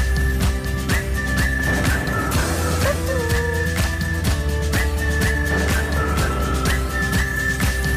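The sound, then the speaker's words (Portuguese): A person whistles a short melody in clear, sustained notes that rise and fall, introducing a traffic report, over a dense, loud backing of music or bustling noise. Nobody speaks. “E é com o assobio que damos entrada ao trânsito.”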